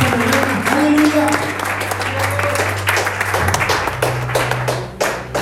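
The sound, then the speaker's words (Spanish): A church audience breaks into sustained applause as they are asked to say amen, applaud and stand up, many hands clapping in a dense, steady patter over a low droning hum, with faint crowd noise underneath. “Alguien dice amén a esto y aplaudir y ponerse de pie”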